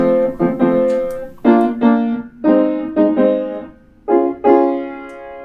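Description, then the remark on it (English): Major chords on a piano, about eight struck alone in a relaxed, uneven rhythm, each ringing out and fading before the next; moderately loud. The chords show a song's chords played with a major quality added. “So like if I had to add some um, major or minor qualities to it, I would add major and it would sound like this.”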